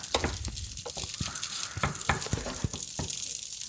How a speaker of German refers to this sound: Also ich muss erstmal mal ein bisschen brutzeln hier.